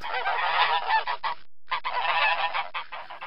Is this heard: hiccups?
no